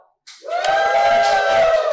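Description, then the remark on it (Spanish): A live crowd bursts into loud applause and cheering after a brief silence, with a sustained high whistle or whoop riding over the steady roar until the end. “Estamos en público en vivo, así que no sé, hagan una bulla, aplaudan.”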